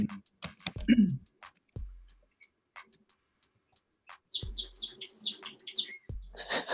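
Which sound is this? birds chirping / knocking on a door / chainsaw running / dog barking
birds chirping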